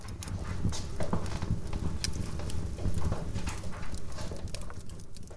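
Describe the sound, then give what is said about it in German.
A fire crackles and pops steadily in a living-room fireplace, a dense, irregular patter of snaps over a low warm rumble, fairly even in loudness throughout. “Das Kaminfeuer prasselt im Wohnzimmer”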